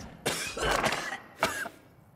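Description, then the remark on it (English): Two dry, harsh coughs, a longer hacking one followed by a shorter one, with no talking around them; a person performing a dry cough on purpose to demonstrate a coronavirus symptom. “Second, a dry cough, like this.”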